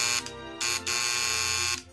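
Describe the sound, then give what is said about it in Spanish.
A harsh electric apartment doorbell, rung on a freezing day, buzzes in steady, loud bursts, its raspy drone briefly dipping and swelling as it sounds several times in a row. No one speaks. “Finalmente encuentro el apartamento que busco y llamo al timbre.”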